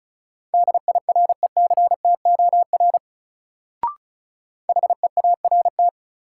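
Fast Morse code at 35 words per minute, sending a drill of words, in a single steady mid-pitched tone keyed in quick dots and dashes. Two bursts are separated by a pause broken by one short click, with no voices.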